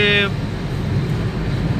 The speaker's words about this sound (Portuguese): Vou até levantar o vidro aqui para ficar bem legal aqui, bem bacana, bem sussa, para não ter mais não tem aquele barulho de trânsito.